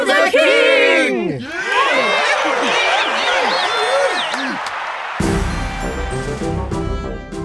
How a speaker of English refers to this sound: When Edward was crowned, the crowd shouted, Long live!